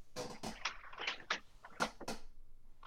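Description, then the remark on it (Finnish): Someone kicks the stairwell door over and over, a series of dull, uneven bangs spaced through a few seconds, muffled and fairly faint. “Kauhea huuto kuuluu, kun joku potkis rapu oveen.”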